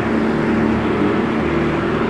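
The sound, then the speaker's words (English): The piston engines of a B-24 bomber, the last one still flying, drone steadily from inside the cabin in flight near Santa Barbara, a loud, unbroken low hum with a rough, throbbing tone and no voices over it. “the last B-24 still flying.”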